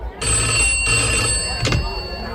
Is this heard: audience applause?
no